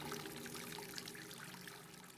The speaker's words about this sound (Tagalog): Masyadong malakas ang buga ng tubig sa binuksang gripo. Tapos dinig na dinig ko pang hindi nasahuran ng planggana o timba. Tumatapon lang ang tubig.